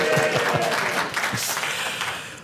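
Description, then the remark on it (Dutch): A crowd of a few hundred people applauds steadily at Grand Café Lagerhuis on Thursday evening, 23 March 2023. Dense clapping holds a loud, even level, with a few whoops mixed in, before it starts to taper off slightly. “We hebben een paar honderd mensen hier in Grand Café, het eh, Lagerhuis. Dus laten we even horen, dames en heren.”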